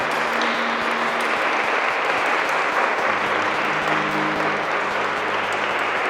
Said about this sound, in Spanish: Dale un aplauso fuerte, Señor, hermanos.